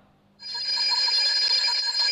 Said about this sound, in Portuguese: O despertador toca, não há pressa.